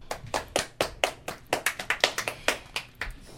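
A short burst of applause: many sharp, irregular hand claps in quick succession, crisp and bright, with no voices over them.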